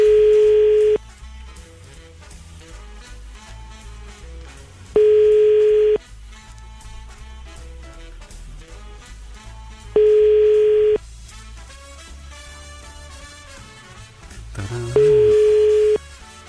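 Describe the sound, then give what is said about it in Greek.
A telephone ringback tone rings four times, each steady one-second beep separated by about four seconds of quiet, over continuous background music, and nobody answers: a call to Anna placed during a show. “Δεν ακούνε το σηκώνει Άννα, δεν πειράζει.”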